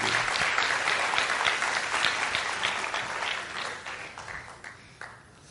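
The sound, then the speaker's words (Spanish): An audience breaks into steady, dense applause, many hands clapping together at an even level before the sound thins out and fades toward the end. “Un aplauso para me alucinante.”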